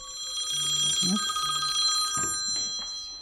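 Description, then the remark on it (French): A telephone bell rings steadily, its bright metallic tone sustained throughout, while a voice briefly murmurs underneath; the phone of an abortion emergency hotline cofounded by a New York doctor. “depuis le 24 juin 2022, le téléphone n'arrête pas de sonner.”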